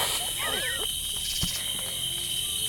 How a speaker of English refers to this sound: Good night, cicadas. you loud assholes.